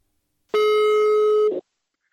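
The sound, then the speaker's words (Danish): A single steady electronic telephone ringback tone of an outgoing phone call, about one second long, clear, with no talking around it, followed by a brief soft noise as it ends. “Hej, du, jeg ringer til dig”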